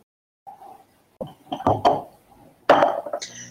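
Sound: twenty-sided die being rolled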